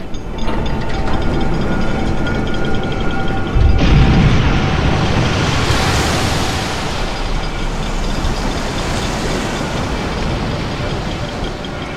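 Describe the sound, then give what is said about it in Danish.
Heavy machinery from two huge Dutch floating cranes in the sea off Anholt hoisting the sunken submarine U-534 free of the seabed mud and back to the surface: a steady, dense mechanical roar with faint humming tones, ratcheting clatter, and a deep rumbling surge a few seconds in. No one speaks. “Kranerne er i gang med at trække U-534 fri af mudderet på havbunden og tilbage til vandoverfladen for første gang i 48 år.”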